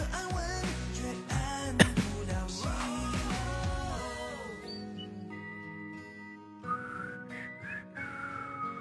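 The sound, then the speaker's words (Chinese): Someone whistles a short melody with clear, pure tones that glide up and down. It follows a dense burst of music-like sound, and no one speaks over it. “哎，刚刚那个会打会会吹口哨的呢”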